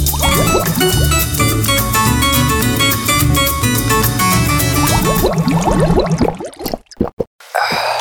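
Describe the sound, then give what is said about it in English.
Water pours from a water cooler in a break room with a loud, steady gurgle and rising bubbly glugs for several seconds, then trails off into a few sputtering splashes and silence. No one speaks. “So let's just go over to the water over to the water cooler and get ourselves something to drink, shall we?”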